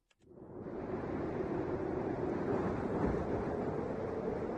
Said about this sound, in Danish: Kan du høre Alaskas vind suse? Ja. Bare smukt.